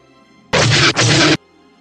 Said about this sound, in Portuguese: os tiros de prótons vindo do TIE Fighter, a carga iônica dele atinge a tua nave e ela começa também a soltar fumaça, mas não como a dele, né?